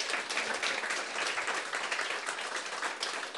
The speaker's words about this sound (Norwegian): Det fortjener en applaus til.